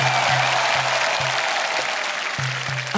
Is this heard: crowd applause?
yes